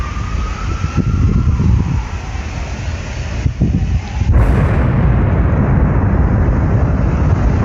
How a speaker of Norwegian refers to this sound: Ti sekunder før bomba eksploderer. fem sekunder.